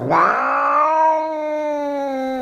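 A cat named Pushok gives a single drawn-out meow in response, loud, rising at the start and then holding a steady, slightly strained tone for a couple of seconds with no other sounds around it.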